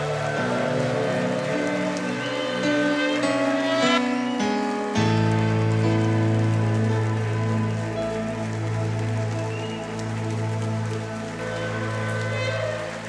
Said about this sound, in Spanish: Amén y amén. Dele un fuerte aplauso al que vive y reina. Muy fuerte la trompeta.